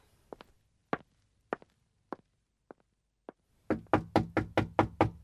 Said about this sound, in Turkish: Kapı çalınır.